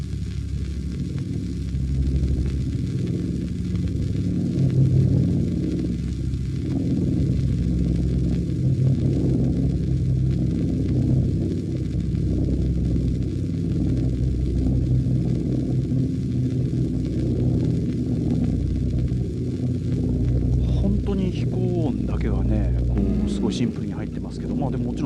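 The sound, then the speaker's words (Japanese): A Boeing B-17 heavy bomber flying at 3000 meters altitude, recorded in 1943: its piston engines drone steadily and loudly for the whole stretch, a deep pulsing rumble with layered tones, with what sounds like a faint voice near the end. “ボーイン B17B 高度3000メートル”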